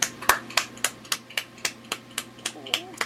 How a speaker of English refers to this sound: Golf clap. Bravo.